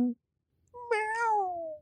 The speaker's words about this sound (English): Here we go uh, for your consideration. A little mer and meow.